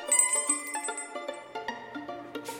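A small door bell of a hardware store jingles rapidly and repeatedly in bright, overlapping metallic rings as someone bursts in one afternoon in autumn 1956, moderately loud, ending with a brief soft rustle of noise.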